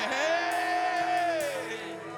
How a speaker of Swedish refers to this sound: Allt folket ropade hysteriskt.